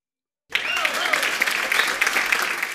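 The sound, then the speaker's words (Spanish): A fake crowd applause sound effect inserted into the audio starts abruptly after a half-second of silence and continues steadily, dense and bright, with many overlapping claps and no talking. “Quiero que reciban con aplausos falsos que voy a insertar en este audio”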